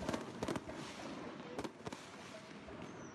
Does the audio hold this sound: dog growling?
no